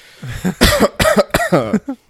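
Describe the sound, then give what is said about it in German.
A quick series of harsh coughs, three strong bursts in the middle with a few weaker hacks around them, ending in a soft throaty sound. No talking. “Ja, das, das Husten, damit sollte ich beginnen, glaube ich.”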